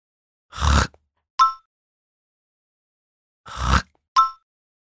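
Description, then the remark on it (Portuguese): A voice vibrates the back of the throat to demonstrate the R sound in 'Frei', like hawking without spitting. It makes a raspy, guttural rattle twice, each rough burst followed by a brief higher vocal blip, with a pause between the two attempts. “Tudo que você tem que fazer é vibrar o fundo da sua garganta.”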